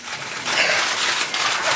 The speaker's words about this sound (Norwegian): Mens det her er lyden av kameraene på Therese Johaugs pressekonferanse i oktober samme år.